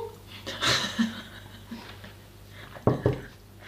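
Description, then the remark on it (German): Someone takes a sip of a drink right at the microphone, with close, wet gulping and swallowing noises in two short bursts against a quiet background hum. “Und auch so richtig schön ins Mikrofon schlucken.”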